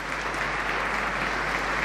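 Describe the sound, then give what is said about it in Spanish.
A crowd applauding at the ceremony for the new bishop of the Diocese of Mondoñedo-Ferrol, Spain, as they await his words, steady dense clapping that holds at an even, fairly loud level throughout without breaks or voices on top. “Esperamos sus palabras, todo el pueblo las espera mientras siguen aplaudiendo.”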